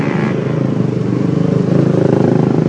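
Motorcycles roar past, a loud, continuous rumbling engine drone with rising revs that fills the whole stretch, no voices heard.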